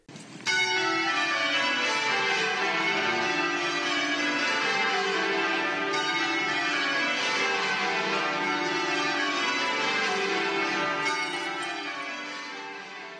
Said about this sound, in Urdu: بادشاہ چارلز سوم اور ملکہ کیملا کے بگیوں میں کوچ ویسٹ منسٹر میں داخل ہونے کے ساتھ ہی ایبی کی گھنٹیاں پورے وسطی لندن میں بجنے لگیں